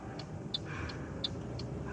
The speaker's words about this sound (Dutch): Ik zit in een auto. Ik ben op weg naar de crash om hem te halen en om dan eh, naar huis te brengen.